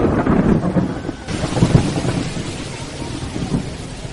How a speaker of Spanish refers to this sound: Ah, lástima que empezó a llover.